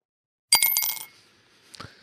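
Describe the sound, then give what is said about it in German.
A one-euro coin drops into a glass with a bright, ringing clink that fades over half a second, then a second softer clink follows, with no voices. “Ich habe noch einen Euro in der Tasche, warte. Gib mir das Glas.”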